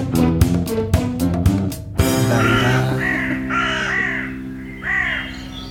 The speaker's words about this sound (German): Soll ich einen Trenner ja, spielen?